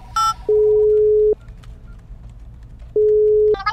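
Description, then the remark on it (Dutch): A quick electronic dialing beep, then a steady telephone ringing tone sounds twice, each burst under a second with a pause between, clear as if heard through a handset; a call from the 112 emergency call centre to police officer Willemsen. “Goed zo, bel ik agent Willemsen weer even, hè?”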